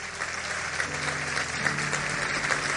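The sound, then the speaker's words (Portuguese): An audience applauding: steady, dense clapping from many hands that holds at an even loudness throughout, with a faint low hum of voices or instruments underneath. “Aplauda ele, porque ele é maravilhoso.”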